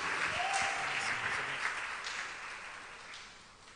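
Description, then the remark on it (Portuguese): An audience claps for the Lord together in sustained, dense applause that holds steady before gradually tapering off, with a brief faint tonal whistle or voice near the start. “Dê um aplauso ao Senhor e diga: Eu recebo em nome de Jesus.”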